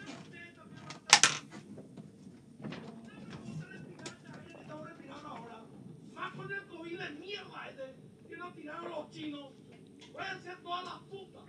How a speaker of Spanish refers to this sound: Voy a, ver si no puedo cerrar más la puerta.